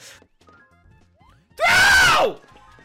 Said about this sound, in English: he is known as kind of like the screaming uh, YouTuber who likes he plays Wii games and he screams a lot